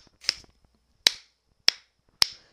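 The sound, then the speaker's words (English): Someone imitates a ceiling fan slapping a balloon that had drifted over into it, making four sharp, crisp smacks spaced roughly half a second apart, fairly loud with silence in between. “the balloon had inched its way over, and it's just the ceiling fan is just slapping this thing repeatedly”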